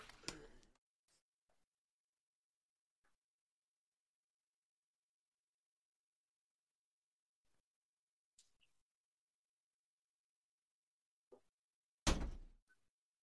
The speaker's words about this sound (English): Oh. Uh, hold on. There's someone knocking at my door.